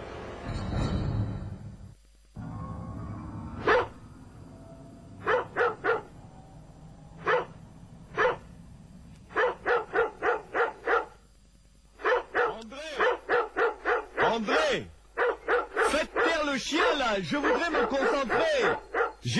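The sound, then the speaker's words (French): A dog, Philby, barks at a wall with nothing there, repeatedly, starting with isolated sharp barks and building into rapid, frantic bursts of yips and barks, loud, with a low rumble underneath at the start. “Il n'y a rien mais le chien aboie.”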